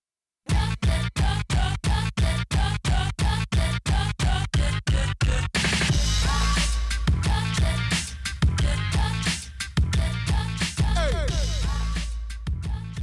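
A hip-hop track plays loud and close, opening with a run of sharp, evenly spaced chopped stabs before dropping into a dense, full mix with heavy bass and busy layered production.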